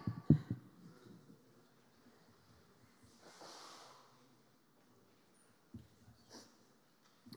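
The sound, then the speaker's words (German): A single drawn-out nose blow, a rushing, breathy burst lasting under a second, with a few faint soft knocks and sniffs around it. “Wir machen heute alles mal ein bisschen, dann kann ich noch mal Nase putzen.”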